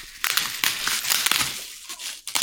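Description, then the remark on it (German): Polyethylene plastic wrap around a cuboid package crinkles and crackles steadily as it's pulled open, a busy rustle of sharp little snaps lasting the whole stretch, with no voices. “Ich eröffne die Folie.”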